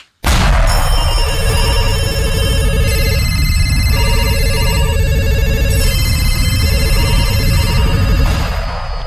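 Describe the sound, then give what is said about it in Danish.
A loud telephone ringtone jingle plays for about nine seconds: bright electronic ringing tones repeating in a steady melodic pattern over a thick, rumbling low backing, with no voices. “Jeg synes, nu, nu skal jeg bare annoncere, at det er blevet tid til øh, fortidstelefonen.”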